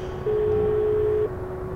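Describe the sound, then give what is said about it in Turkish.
A telephone ringing tone heard down the line of a mobile phone calling a home number: a single steady, pure one-second beep, moderately loud, over a faint constant hum with no voices. “Uzun uzun çaldı zil.”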